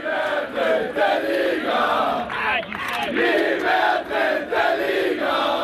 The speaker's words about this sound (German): Künftig wird hier Zweitligafußball gespielt. Der Jubel kennt keine Grenzen. Die SVE-Anhänger unter den 7300 Zuschauern stürmen durch die geöffneten Stadiontore auf den Rasen.